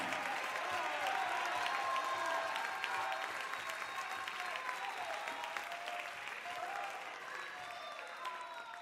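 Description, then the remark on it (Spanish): A church audience applauds steadily in praise of God, a dense, sustained wash of many hands clapping that stays loud throughout and eases slightly toward the end, with faint voices mixed in underneath. “dale fuerte ese aplauso y dale gloria con tus labios.”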